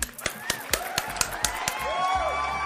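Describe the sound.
Steady rhythmic clapping, about ten sharp claps at an even pace, with wavering vocal whoops and murmuring voices rising over the second half.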